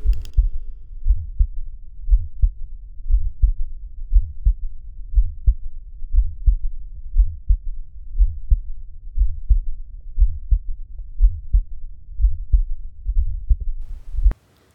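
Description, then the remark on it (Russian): Steady heartbeat heard through a stethoscope during auscultation over the tricuspid point, low thudding beats repeating regularly with a faint extra soft sound after some beats, a third heart sound, muffled, no talking. “Аускультация над трикуспидальной точкой. Слышен также третий тон.”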